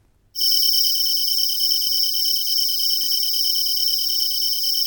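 A kantan tree cricket trills nonstop after a brief moment of silence, a loud, high-pitched purring buzz held steady and unbroken to the end, with no voices.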